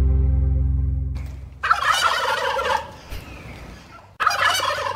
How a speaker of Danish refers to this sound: Nå, det er en kalkun. ja, det er en kalkun. Du har selv spillet klippet tidligere, så nogen helt kæmpestor overraskelse. Ikke? Men det er alligevel lidt sjovt, at det lyder sådan.